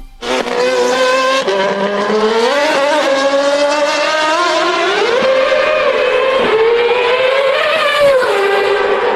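A Red Bull Formula 1 car engine screams at high revs on Avenida Reforma for about nine seconds, its harmonic whine climbing and dipping with each throttle change, loud and continuous with no talking.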